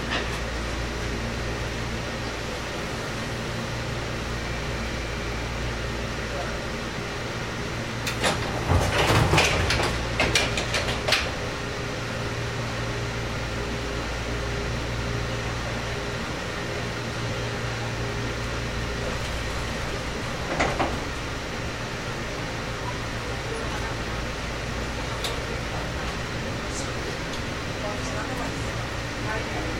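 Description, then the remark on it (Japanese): A steady low hum fills the cabin of a JR Kyushu 415 series electric train on the Nippō Line between Ōita and Kōzaki; partway through, a loud burst of hissing and mechanical clunks marks the doors sliding shut, followed later by a softer thump. “JR九州 415系 日豊線 大分から幸崎まで”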